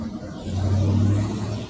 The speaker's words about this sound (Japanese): あ、車の音がごめんなさいね。ちょっとうるさい。